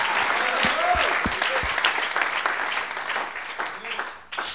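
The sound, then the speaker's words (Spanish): A church audience breaks into sustained applause for the Lord, a dense wash of clapping that holds steady for several seconds before thinning out, with a few brief voices rising over it. “Ah, démosle un aplauso al Señor ahora.”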